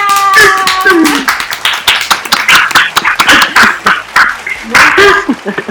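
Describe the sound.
A burst of applause, many hands clapping in a dense, rapid patter that holds steady for several seconds, with a few voices whooping and laughing over it.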